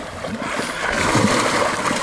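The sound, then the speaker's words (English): Heavy, churning water splashes beside a boat as a massive fish comes up to the surface and thrashes, a continuous rush of spray that swells slightly louder midway and soaks the people aboard, with no voices. “Uh, wet my camera up. Yeah, we're all soaked now. I've got water all over this iPod and everything.”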